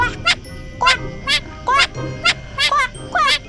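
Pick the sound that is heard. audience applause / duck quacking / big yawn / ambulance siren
duck quacking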